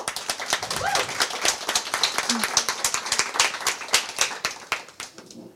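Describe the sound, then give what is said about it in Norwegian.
A small audience at a meeting applauds two political commentators with steady, brisk clapping for several seconds, even, with a faint vocal murmur mixed in before the clapping thins out at the end. “så jeg foreslår at vi gir dem en eh, liten applaus.”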